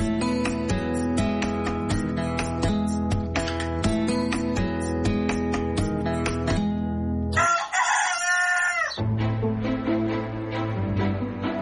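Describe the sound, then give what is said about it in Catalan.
A single crow from a Prat blue-legged rooster, a chicken with slate-blue legs, rings out clearly for a second or two partway through, with steady instrumental music playing before and after it. “pollastre pota blava, que també dona nom a la gent que viu al Prat de Llobregat, es caracteritza pel color blau pissarra de les seves potes.”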